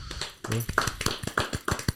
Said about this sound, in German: So, mal kurz Applaus.